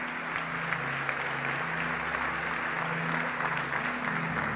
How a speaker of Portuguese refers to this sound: Alguém dê um aplauso ao Senhor neste lugar.